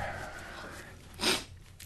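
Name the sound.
sneeze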